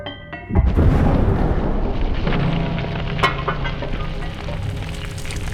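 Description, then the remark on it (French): A deep dynamite blast booms at the Mont-Wright iron mine, its heavy low rumble rolling on and slowly fading for several seconds, with no voices. “Et lorsque vous continuez, 65 km plus loin, vous trouvez l'exploitation minière du Mont-Wright une mine de fer, si tu veux l'exploiter, on va dynamiter.”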